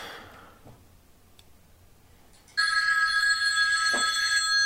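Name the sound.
telephone ringing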